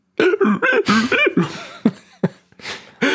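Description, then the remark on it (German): A voice imitates the sound of someone picking at their ear, making a wordless string of squeaky, rubbing and crackly mouth noises. The bursts are short and uneven, separated by brief pauses. “Ich habe eigentlich nur nachgemacht, wie du dich gerade im Ohr gepopelt hast.”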